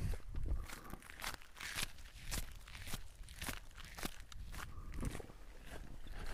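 Steady footsteps crunch over a gravel path, each step a gritty, scraping crunch at an even walking pace, about ten steps with no talking over them.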